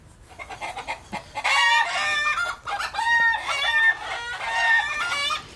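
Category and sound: bird, chickens clucking and crowing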